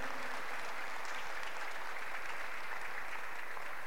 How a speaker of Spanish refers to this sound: ¿Alguien puede dar un aplauso al Señor fuerte, fuerte?